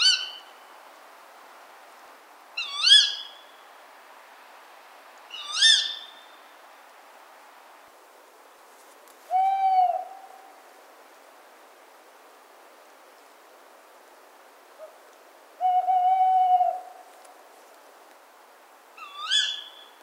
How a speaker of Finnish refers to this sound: Seuraavassa on tarjolla Lehtopöllön ääntelyä. Se on äänitetty 19. päivä helmikuuta. Ja äänite on taltioitu pienen pienellä tallentimella.